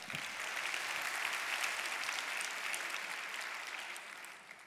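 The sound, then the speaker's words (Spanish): Sustained applause from an audience, a dense steady wash of many hands clapping that holds for several seconds before tapering slightly at the end, with no voices standing out. “Ay, bendita, date un aplauso de verdad.”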